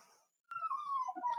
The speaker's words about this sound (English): And sorry for the dog whining in the background. He really wants to go to bed.